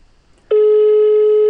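After a brief quiet moment, a loud, steady telephone dialing tone begins abruptly and holds without a break, clear, with no voices.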